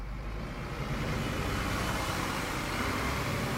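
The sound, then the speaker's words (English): A bus engine rumbles loudly, a steady low drone that swells slightly as the vehicle pulls away, with no voices. “The bus is leaving the station”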